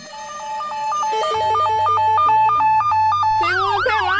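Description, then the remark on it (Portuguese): An electronic telephone, used by an old woman to call the police patrol, rings with a bright, stepping beeped melody. A low droning bass line joins partway through, and it ends in loud warbling, wavering tones, steady with no voices. “E correu ao telefone para chamar a rádio patrulha.”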